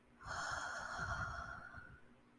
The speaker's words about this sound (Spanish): Vamos a hacer primero una respiración profunda. Inhalas. y exhalamos por la boca.